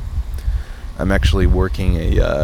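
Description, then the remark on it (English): Steady low wind rumbles against the microphone outside on a windy, cool day, alone for the first second and then continuing beneath a person talking. “It is a little windy outside. I know that you can hear it in the background, but yeah, it's a cool day actually.”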